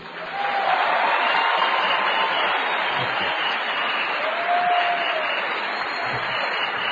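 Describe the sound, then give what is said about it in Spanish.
A steady burst of applause from audience members who believe they can reach the Diamond pin rank, many hands clapping in a dense, continuous wash that stays loud and even for several seconds, with a faint whistle or cheer rising briefly through it. “Por favor, aplaudan todas aquellas personas que piensen que pueden llegar a ser diamantes.”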